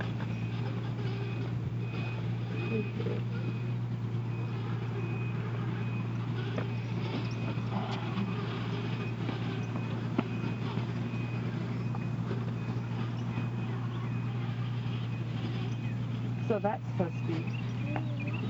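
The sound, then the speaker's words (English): Construction machinery in the background drones with a steady low engine rumble while a reversing alarm beeps repeatedly in a high, evenly spaced pattern. Faint voices come and go underneath. “if you can hear the construction in the background”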